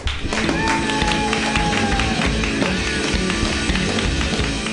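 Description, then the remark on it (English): Steady, loud audience applause at a comedy show as the next comedian is introduced, a dense wash of clapping with crowd noise and some tonal sounds running through it. “You guys clap wildly.”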